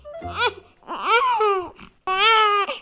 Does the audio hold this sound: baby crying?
yes